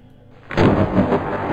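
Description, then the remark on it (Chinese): After a brief quiet moment, a wooden door slams shut with a sudden, heavy bang, followed by a loud, booming rumble that lingers for about a second. “在接近门口的时候，原本没有木门的门突然“砰”的一声合上了。”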